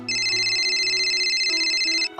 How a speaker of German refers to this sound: Wobei da klingelt ja andauernd bei jemandem das Handy.